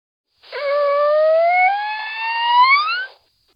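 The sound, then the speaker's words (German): A single dolphin whistle, a clear tonal sweep lasting nearly three seconds that glides slowly upward in pitch, rich with overtones, loud with no other sounds around it. “Aber dieses Geräusch ist das Geräusch, was Delfine so machen.”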